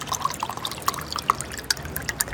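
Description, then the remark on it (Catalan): Lemonade pours into a small glass, a quick run of bubbly, uneven glugs and drips over a soft background hiss, with no talking. “Escolteu, criatures, que me'n posaríeu un gotet, si plau.”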